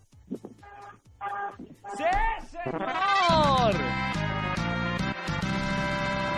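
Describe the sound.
A brief spoken reply, then a loud, blaring car horn, honked by a driver three times from his car, sounds in long, sustained blasts with a slightly wavering pitch, continuing to the end.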